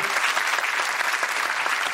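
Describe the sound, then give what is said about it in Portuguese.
Steady, dense applause from an audience welcoming a guest, many hands clapping together in a continuous crackling wash that stays evenly loud throughout, with no voices standing out. “por favor, uma salva de palmas para André Barcinski”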